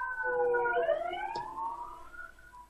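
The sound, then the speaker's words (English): Emergency vehicle sirens wail with rising and falling harmonic tones, steady, with a brief sharp click partway through and no voices over them. “You heard those sirens.”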